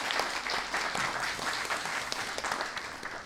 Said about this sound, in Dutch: Laten we ze nogmaals een applaus geven dat ze in hun drukke